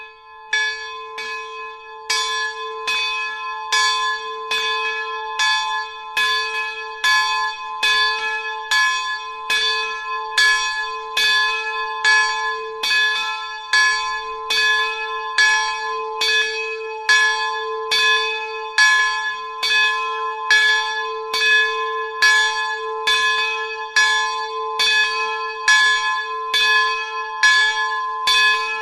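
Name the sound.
church bell ringing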